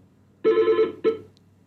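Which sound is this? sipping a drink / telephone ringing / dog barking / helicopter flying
telephone ringing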